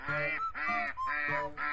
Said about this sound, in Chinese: 好朋友小鸭嘎嘎和呱呱过来了。